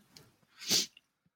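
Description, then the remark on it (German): A single sharp sneeze bursts out, with a brief breathy intake before it and a short hiss as it ends, then quiet. “Gesundheit.”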